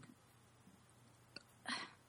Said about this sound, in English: Here I'm going to burp.